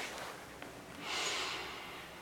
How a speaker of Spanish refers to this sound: Te voy a pedir que inhales bien profundo